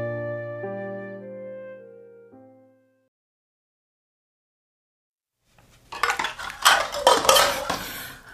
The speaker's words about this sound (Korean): 달이 뜨도록 일하는 어머니를 대신해 저녁을 준비할 때면 오빠들 들으라고 일부러 스텐 그릇을 집어 던지듯 다뤘다.